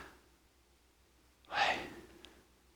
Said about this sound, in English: he believes that the ancient rabbis had it right when they claimed that the closest we can come to accurately saying the name of God is breathing. That the sound that every human being makes when they breathe.